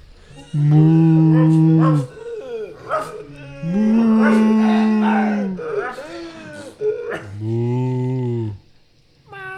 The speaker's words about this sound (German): Hört ihr nicht? Hört ihr nicht die Tiere? Die brauchen Fressen, die brauchen Suppe.